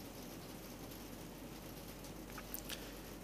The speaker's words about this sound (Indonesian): ini background ada suara hujan ya karena saya di Bogor Bogor adalah kota hujan jadi nggak kedengeran nih di audio gue pasti kedengeran